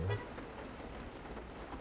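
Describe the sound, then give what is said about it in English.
Soft, steady rain hisses continuously at a low level, with faint scattered patters of drops and no voices. “In New England, it's snowing right now, but everywhere south of New York is rain.”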